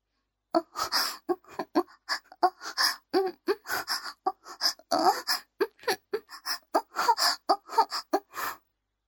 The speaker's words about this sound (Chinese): 这就是打架的声音，这不是操逼时的声音吗？